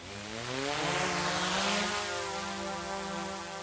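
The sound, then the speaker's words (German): Drones spin up with a rising electric whine, then hold a steady, loud buzzing hum of whirring rotors as they take off near Winterthur, Switzerland. They are searching for a warm bottle hidden in tall grass in place of a fawn. No one speaks. “Die Flasche wird dann im Höchengras versteckt und dann fliegen die Drohnen schon los.”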